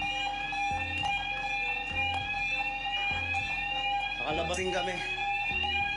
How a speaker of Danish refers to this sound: Den skærende tone fra alarmen signalerer, at et potentielt piratangreb er på vej, og alle mand løber under dækket for at komme i sikkerhed.